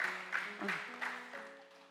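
An audience claps in a steady, dense patter that fills the short stretch, with a few brief voices and tones rising over the applause.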